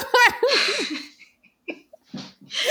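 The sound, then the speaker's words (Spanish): A sharp, breathy sneeze bursts out near the start after a quick rising intake, followed by a few scattered short breaths and soft laughing sounds. “Me dañó el estornudo.”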